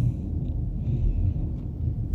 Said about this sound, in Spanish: Sí, hay una tormenta súper intensa. No sé si se alcanza a escuchar esto.